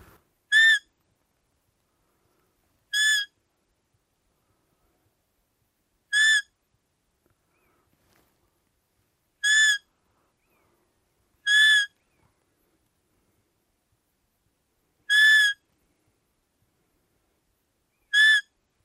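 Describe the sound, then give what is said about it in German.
A roe deer hunting call used for Blattjagd (calling roe bucks) blown seven times at irregular intervals, each a short, high, reedy squeak with bright harmonics, sounding alone against silence with no talking. “Und gerade wer so mit der, mit der Blattjagd anfangen möchte, hat damit wirklich ein tolles Instrument.”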